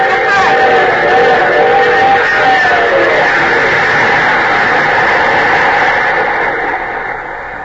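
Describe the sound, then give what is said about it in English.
A train engine roars past on the tracks of a rail yard, a loud sustained rumble with layered tonal hums and whining pitches that waver, holding steady before easing off toward the end. “The one who was standing here when that engine passed.”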